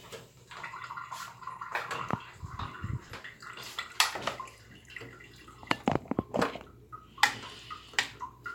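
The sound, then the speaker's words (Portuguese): Water splashes and trickles into a cooking pot of seasoned meat until it covers the meat, in irregular bursts, mixed with light clinks and knocks of kitchenware, moderately loud, with no one speaking. “Coloca tudo isso aqui e coloca água até cobrir a carne.”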